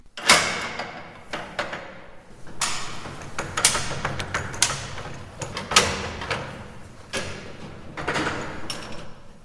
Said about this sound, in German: Und eine Turmuhr, die er da für die Ausstellung geholt hat, die befindet sich sogar ganz in der Nähe, nämlich im Stadtteil Reppdorf. Die alte Turmuhr, die hatte er damals für mich aufgezogen.